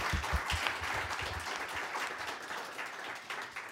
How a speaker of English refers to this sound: Everybody give them a round of applause again, please. Great debate.